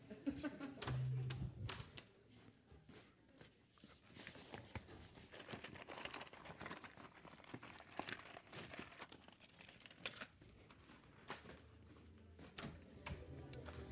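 Paper booklets rustle and crinkle continuously as they are handed around a group until everyone has one, a busy shuffling with scattered soft taps and crunches, while people murmur quietly.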